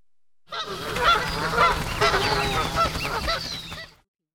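A flock of geese honks loudly and continuously, with many overlapping calls that rise and fall together for a few seconds before stopping abruptly.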